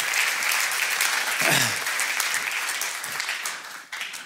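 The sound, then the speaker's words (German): A crowd claps steadily and loudly for about four seconds, applauding the people who do jobs in the audience, a dense, even wash of many hands that thins slightly toward the end, with a brief faint voice mixed in near the middle. “Komm, lass uns mal diesen Leuten allen Applaus geben, oder?”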